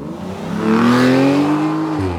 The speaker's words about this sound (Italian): Qualcuno transita a bordo di auto sportive lanciate velocissime sotto le barricate antiveicolo, all'epoca ancora basse